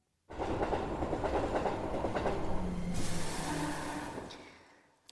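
A train rolls in with a steady rumbling roar and rhythmic clatter of wheels over rail joints, ending with a hiss of brakes as it slows and the sound fades out.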